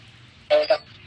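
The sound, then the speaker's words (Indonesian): A car horn gives two quick honks in a row, a longer blast followed by a shorter one, moderately loud over a faint background hum. “Itu ada suara traksun traksun di mana sih? Klakson, men, klakson.”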